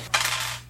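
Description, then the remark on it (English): A quick clatter of dice tumbling across a hard surface as they are rolled for healing, one bright rattling burst that fades within half a second over a steady low hum. No one speaks. “Let's roll some healing for Arnis.”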